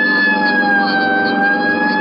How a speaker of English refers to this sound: I'll hit the siren. You get the light.